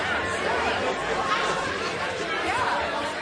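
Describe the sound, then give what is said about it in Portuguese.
A crowd murmurs steadily in a courtroom gallery, many overlapping voices blending into a continuous indistinct hubbub at moderate volume, with no single voice standing out. “O sussurro tornou-se um ruído.”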